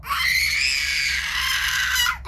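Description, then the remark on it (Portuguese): A voice imitates a baby crying from a baby's room, a single loud, high-pitched wail held steadily for about two seconds before cutting off, unaccompanied by speech. “E eu faço um barulho de choro vindo do quarto, do, do, do quarto do bebê.”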